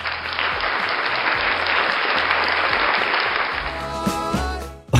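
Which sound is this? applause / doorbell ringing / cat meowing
applause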